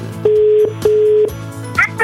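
A telephone line tone heard through the handset as Radio Sinar phones a man's wife to pass on a birthday message: a steady mid-pitched beep sounding twice in quick succession, each lasting under half a second, over a low background hum.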